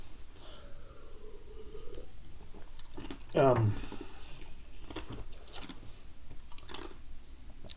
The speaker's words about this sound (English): I could hear my chewing and shit.